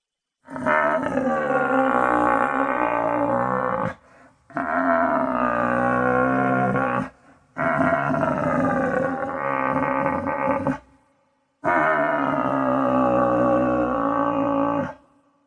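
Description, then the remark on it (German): Four long, loud, throaty roars from a red deer stag in rut on its mating ground on an alpine meadow, each lasting about three seconds with short gaps between, deep and rasping, with no talking. “Wenn man am Anfang ja nur das verhaltene Brummeln des Hirsches hört, dröhnt auf einmal vom Almboden her, vom Hochzeitsplatz des Hirsches, der Kampfschrei, der Brumpfschrei”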